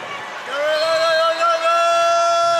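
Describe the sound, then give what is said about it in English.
Volleyball fans in an arena cheering at a Texas State versus Chanticleers match, their noise swelling after a moment into a loud, sustained, drawn-out roar with a steady, almost tonal ring that holds to the end. “You can hear these fans just amped up.”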